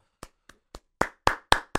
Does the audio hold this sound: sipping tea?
no